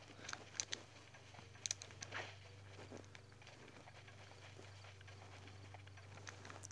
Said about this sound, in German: Nö, wir reiten uns jetzt ein Pferd zu. Oh Mann, schon wieder laufen die weg. Bleibt stehen, ihr dummen Pferde. Ich will euch nichts.